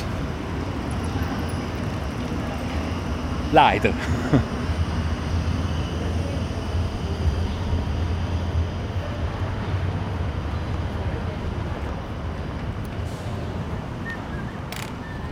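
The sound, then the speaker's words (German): A tram rumbles past on the other side of a busy city street as the street is being crossed, a steady low roar of wheels and traffic with a brief sharp clack early on. A voice speaks briefly and laughs. “Jetzt gehen wir darüber, jetzt wird es interessant, es kommt das Tram noch auf der anderen Seite.”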